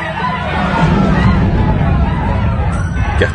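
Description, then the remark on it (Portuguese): A large crowd of Israelites in their camp roars and shouts at once as the Ark of the Covenant arrives, a loud, dense, continuous din with no single voice standing out, lasting a few seconds. “Quando a arca chegou, os israelitas gritaram tão alto”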